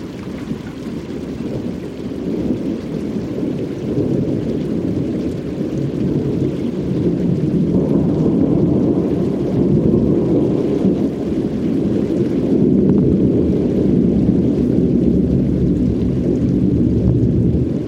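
An out-of-season December thunderstorm passing over Long Island Sound in New England, with deep, continuous rolling thunder that rumbles loudly throughout, over a steady hiss of rain and some wind. No one speaks.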